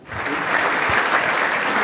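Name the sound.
audience applause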